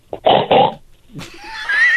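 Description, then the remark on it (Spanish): A person imitates a pig with two quick, nasal grunting oinks, followed by a higher, rising squeal-like vocal sound that trails off toward the end. “Oink, oink, dice el puerco.”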